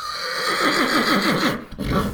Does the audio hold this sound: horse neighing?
yes